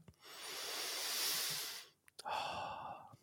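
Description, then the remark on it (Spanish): A long, deep breath drawn in with a broad airy hiss, then after a brief pause a slower breath let out, breathy, with no talking. “Respirad, respirad.”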